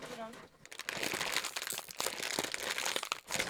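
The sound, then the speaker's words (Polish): A chip packet crinkles inside a paper bag, loud, with continuous rustling and crackling bursts that briefly pause and resume, as someone hides it in the bag so another person cannot see; a short voice sound is heard at the very start. “chowa to w papierowej torbie, żebym nie widziała.”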